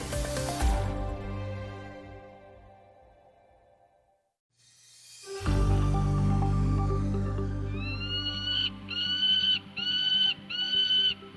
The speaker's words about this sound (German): So klingen Bartgeier. Zum ersten Mal werden in Deutschland zwei dieser Greifvögel ausgewildert.